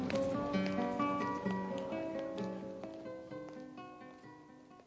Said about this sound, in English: The sounds of car horns, bicycle bells, and footsteps let you know that the scene is taking place in the street or on a square.